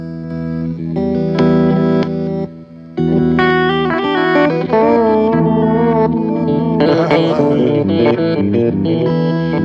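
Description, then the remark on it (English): A guitar played through a Danelectro Back Talk reverse echo pedal, notes swelling in backwards with a smeared, psychedelic wash, loud, with no voices. “That goes into the Dane Electro Back Talk, which um, I love just for the, it, it's an echo where the echo is backwards.”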